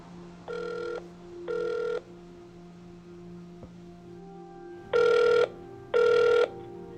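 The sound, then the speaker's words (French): A telephone rings while a call is being transferred at the Institut universitaire de gériatrie de Montréal, in four short, evenly spaced bursts, two rings, a pause of a few seconds, then two more, over a faint steady hum with no one speaking. “Veuillez patienter pendant que je transfère votre appel.”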